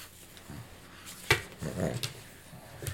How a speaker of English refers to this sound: if you hear a grunting noise, that's our little baby mops.